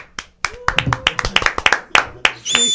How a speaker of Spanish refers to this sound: Bueno, y quisiéramos darle un aplauso a Angélica Ramírez